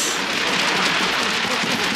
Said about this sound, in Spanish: está el tren, está la lluvia, hay truenos.